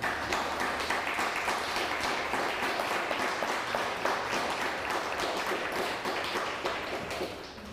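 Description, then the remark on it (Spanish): Steady audience applause, a dense crackle of many hands clapping at a fairly even level for several seconds before easing off slightly at the end; no voices stand out. The applause is for Patricia López, a viewer watching from Reno, Nevada. “Dale un fuerte aplauso Patricia que nos ve también.”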